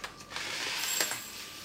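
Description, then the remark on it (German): Millet grains poured into a clay bowl: a steady, dense, hissing patter of tiny impacts with a few brighter clicks, lasting under two seconds with no voices. “So klingt Hirse in einer Tonschüssel.”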